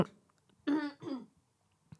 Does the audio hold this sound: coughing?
yes